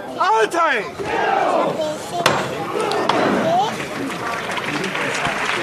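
A man's loud shouted command rings out, followed by a single sharp knock and a swelling roar of crowd noise and clapping as a Holy Week misterio float is lifted again by its costaleros (bearers).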